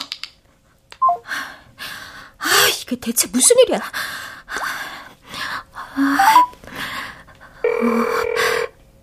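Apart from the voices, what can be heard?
phone dialing and ringing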